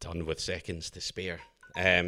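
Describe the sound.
A short electronic alarm chime, triggered by a mention of Atlanta, sounds in a brief pause in a man's speech. It is a thin high tone, quickly followed by more talking.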